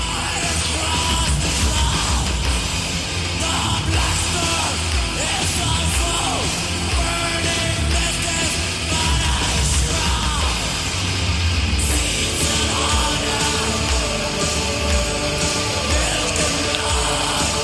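Loud extreme metal with dense, distorted guitars and pounding drums filling the whole track, while a group of voices chants and bellows in unison over the music throughout.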